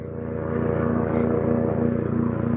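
airplane flying overhead

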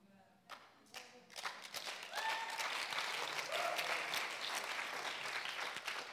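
audience applause

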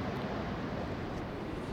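strong wind blowing

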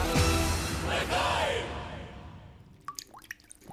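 water dripping

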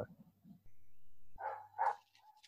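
neighbour's dog barking

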